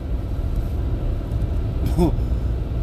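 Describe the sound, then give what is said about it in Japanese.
A car drives steadily at about 30 km/h over a lightly snowed road with no tire tracks ahead, its low, continuous engine and tire rumble filling the scene, with a brief vocal sound breaking in near the end. “僕の前に道がないみたいな僕の前にわだちがないっていう状態ですあもう僕の一歩が初の足跡みたいな感じで車を運転しています30キロでね”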